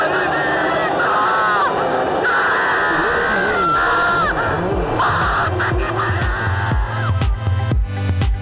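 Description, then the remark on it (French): Ayrton Senna screams and yells with joy and pain over a crackling team radio after winning the Brazilian Grand Prix at Interlagos, letting out loud, strained, wavering cries one after another, with a constant rush of noise behind him. “À la radio, Senna hurle de joie et de douleur.”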